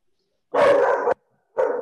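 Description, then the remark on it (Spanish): A dog barks twice, loud: a longer, rough bark followed after a brief pause by a shorter one, with no voices around it. “Cuidado con el perro, no está vacunado.”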